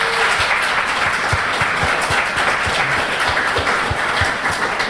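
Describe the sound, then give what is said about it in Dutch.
A crowd applauds steadily for the wife and daughter of comic artist Mero at his 70th birthday celebration, dense clapping filling the whole stretch at an even, loud level with a broad crackling texture and no voices. “Geef ze allebei een applaus.”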